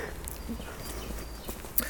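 A few footsteps crunch and tap at an unhurried, uneven pace outdoors over a steady low background rumble as people walk by a large earthen embankment at the UT.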